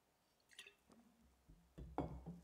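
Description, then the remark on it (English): Someone sips water from a glass: a few soft, wet slurps and a faint swallow, quiet and brief, with no talking. “I'll tell you after this glass of water.”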